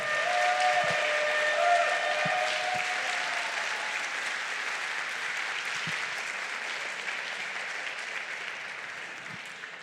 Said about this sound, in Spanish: Dale ese aplauso, Señor. Dáselo más fuerte.